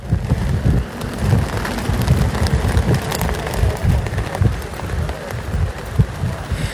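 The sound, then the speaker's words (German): EU flags, set up by pro-EU demonstrators in front of the Parliament building in London, flap and snap in a strong wind, a continuous, irregular fluttering over heavy low buffeting from the gusts. Fairly loud, with no voices. “Was man hier hört, ist das Geräusch von Flaggen, die im Wind wehen.”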